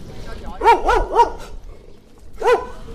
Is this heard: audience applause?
no